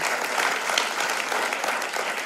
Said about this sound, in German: wir wollen euch nochmal einen ganz, ganz herzlichen Applaus geben und Dankeschön geben.